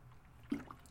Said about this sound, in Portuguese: Dando um gole da minha água aqui.